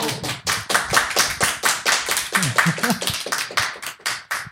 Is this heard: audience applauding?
yes